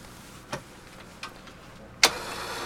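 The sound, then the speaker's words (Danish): Two soft clicks, then a sharper clack as the small electric winch of an electric crane, on a post fixed from floor to ceiling, kicks on, followed by a steady, hissy whirring drone that continues to the end. No one speaks. “Med stander fra gulv til loft er gjort fast der, og så øh, har vi lige et elspil her.”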